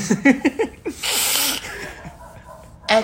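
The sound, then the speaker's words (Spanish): A stifled sneeze being held back: a few quick voiced catches of breath, then a muffled, hissing burst through the nose, followed by quiet and a brief sharp exhale at the end. “Es, que, es que me aguanto eh, el estornudo.”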